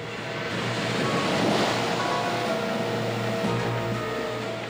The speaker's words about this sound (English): Waves crash against the coast with enough energy to turn over cars and destroy buildings. But how is that energy transferred from the deep water where the waves are generated?